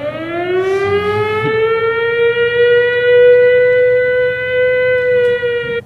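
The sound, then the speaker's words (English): A loud alarm siren wails steadily, its tone rising at the start and then holding a sustained, slightly wavering pitch for several seconds with strong harmonics, no voices present. “Sound the alarm. Sound the alarm. God damn. Sound ring the alarm, man.”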